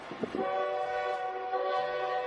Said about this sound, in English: Here comes that train! Toot toot!